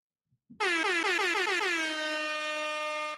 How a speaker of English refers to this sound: Can you hit me one more time with the with the air horns? Because we're doing way too much today.